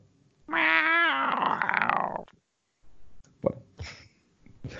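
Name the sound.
person imitating cat meowing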